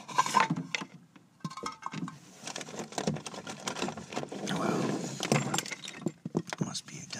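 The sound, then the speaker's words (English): Dropped pencils clatter and rattle as they are scooped up from behind a desk, a busy run of irregular light clicks and knocks lasting several seconds, with brief pauses between handfuls. “I just dropped some pencils behind this desk here.”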